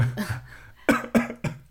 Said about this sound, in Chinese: 你还会笑场。还有笑咳嗽。